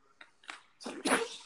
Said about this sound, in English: I just sneezed. Yeah, that was a sneeze.